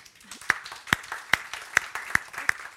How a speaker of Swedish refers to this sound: En applåd.